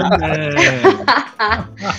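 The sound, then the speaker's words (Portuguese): A person mimics a goat's bleat, a wavering, nasal, quavering cry repeated in a few short bursts, fairly loud, with no other sounds around it. “Cabra também, né? Pra... Cabra também!”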